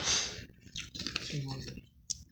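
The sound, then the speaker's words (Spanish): A cigarette lighter flicked a few times as it is passed around among people smoking tobacco: sharp clicks with short bursts of hissing gas, while faint voices murmur in the background. “Pasó el encendedor. Ah, espérate, yo también quiero uno, güey.”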